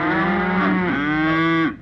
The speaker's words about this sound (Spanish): Pero, ¿qué son esos mugidos? Pues que estamos muy nerviosas. Hace 24 horas que no hemos sido ordeñadas y nuestras ubres están a punto de reventar.